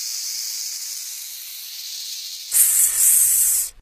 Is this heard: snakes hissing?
yes